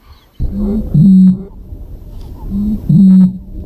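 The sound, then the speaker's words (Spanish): The call of Spain's bird of the year 2024: a deep, resonant booming call sounds twice, each a short grunting lead-in followed by a longer hollow boom, loud with a brief pause between. “ya verás la cara que va a poner Rouget cuando escuche al próximo o sea, la próxima no, a la actual AVE del año 2024”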